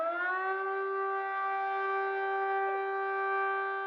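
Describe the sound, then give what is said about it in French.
A fire brigade siren in Martinique, sounded at 8 o'clock, gives one long, steady, unbroken wail at constant pitch, loud and rich in harmonics, filling the whole moment with no voices. “on entend la sirène des pompiers. Il y a plusieurs coups de sirène, je crois, au moins 5 ou 6.”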